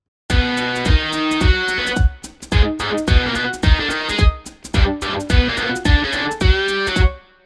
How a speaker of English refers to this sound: Uh, question three is on a guitar modeler now called British Combo Synth Lead. Here's what it sounds like.